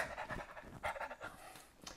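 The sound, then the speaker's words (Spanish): A person telling a joke imitates the dog Fifi panting with a quick series of breathy, rhythmic huffs, fairly loud, ending in a sharper burst of breath. “Y el perro.”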